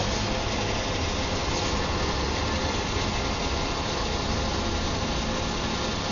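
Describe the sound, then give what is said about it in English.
A petrol pump, pump one, dispensing fuel into a car: a steady, unbroken mechanical whir and rushing hiss, even in loudness throughout, with no talking. “So pump, one, and okay, the sound of money.”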